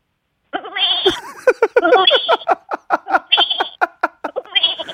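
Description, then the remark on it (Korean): A person imitates a goat as an encore in an animal-sound imitation game, letting out a long run of loud, quavering bleats with a strong tremolo, broken into short pulsing bursts and a few drawn-out cries, with no other voices. “염소, 염소만 다시 한번 앵콜, 앵콜 염소.”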